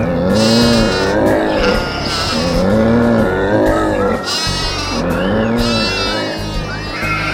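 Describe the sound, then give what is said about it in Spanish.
A flock of sheep bleats loudly and continuously, several wavering calls overlapping one another over a dense, steady background rumble. “También las ovejas ya están contadas, listas para salir con el pastor.”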